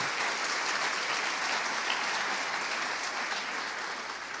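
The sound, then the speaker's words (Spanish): An audience applauds loudly and steadily for Christ, many hands clapping in a dense, continuous roar for several seconds with no one speaking. “Fuerte, si es para Cristo, déselo fuerte en el nombre del Señor.”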